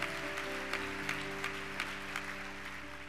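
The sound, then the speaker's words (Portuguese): An audience applauds for Jesus steadily, a dense wash of many hands clapping with a few sharper claps standing out, held at an even loudness over a faint sustained low tone. “Se é para mim, não precisa nem aplaudir. Se é para Jesus, capricha.”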